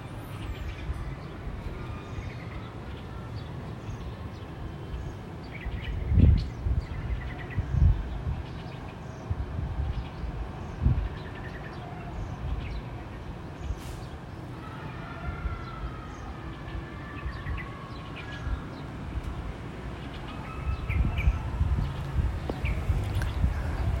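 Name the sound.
outdoor ambience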